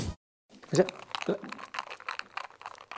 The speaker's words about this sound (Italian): L'inizio è dato dal suono del ghiaccio. che mi sembra un'ottima cosa.